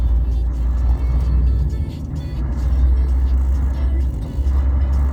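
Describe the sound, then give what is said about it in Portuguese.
Steady, loud road traffic with many cars going by, a continuous low rumble and engine drone that swells and dips as vehicles pass. “Muitos carros passando.”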